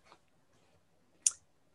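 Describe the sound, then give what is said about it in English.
Two sharp mouse clicks on an up arrow button, a faint one near the start and a louder, crisp one about a second later, with a hush in between and no talking. “yeah, just keep clicking on that up arrow.”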